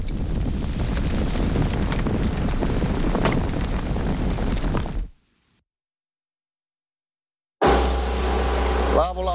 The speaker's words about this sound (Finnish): täällä ollaan jo vetten päällä. Perämiehenä on siellä moottorin parressa